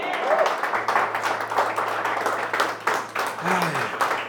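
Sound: audience applauding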